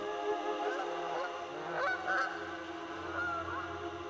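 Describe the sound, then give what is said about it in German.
A flock of wild geese honks continuously, overlapping nasal calls rising and falling in pitch at a steady moderate loudness, with no voices present. “Den Zug der Wildgänse gen Norden sehen sie als Beweis für die Existenz einer warmen Insel im Eismeer.”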